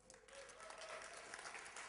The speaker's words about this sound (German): Gib ihm einen Applaus.